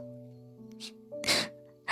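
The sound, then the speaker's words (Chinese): A voice imitates a rabbit's big sneeze in a story, one that blows the petals off the bunch of flowers it holds: a short airy intake followed by a loud, bursting "achoo" that sprays noisy hiss, with a steady low musical tone humming underneath throughout. “很突然的，兔子又打了一个很大的超级大喷嚏，手中的花束就像是经过了台风肆虐，变得光秃秃的一片。”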